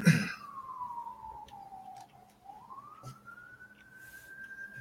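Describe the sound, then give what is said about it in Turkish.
An ambulance siren wails outside, one slow tone that sinks and then climbs again, steady, with a short thump at the very start and no talking. “Hala siren geliyor.”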